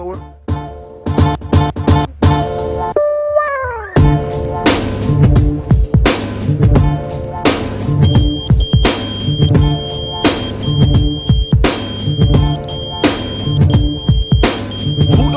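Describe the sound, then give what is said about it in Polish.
A short burst of electronic pager beeps opens, then a thin, high beeping tone rings steadily over a loud hip-hop beat with punchy drums and deep bass. “Dźwięk pagera, który pojawia się na początku tego utworu, jest w tym utworze.”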